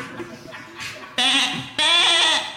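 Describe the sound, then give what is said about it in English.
A pet goat named Chester bleats twice, two loud, wavering cries back to back, the second longer, following a bit of quieter low murmuring at the start. “Uh, that's my pet goat, Chester.”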